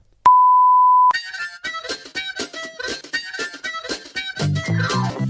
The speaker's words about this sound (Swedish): Säg det och så får Magnus bipa det.